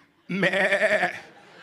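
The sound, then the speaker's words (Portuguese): A single wavering sheep bleat, loud for about a second before trailing off, most likely a human voice imitating the animal's quavering cry. “O, ovelha, ovelha é o quê? É o quê?”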